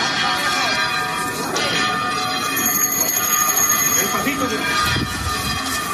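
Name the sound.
church bells pealing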